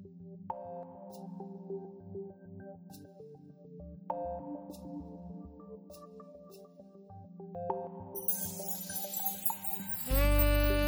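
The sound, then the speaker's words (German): A slow, contemplative Christmas carol plays on soft sustained organ-like tones with gentle chimes, then a hiss builds and the piece cuts into a loud, harsh buzzing blast at the end. “der nächste Song, besinnlich für euch, Stille Nacht”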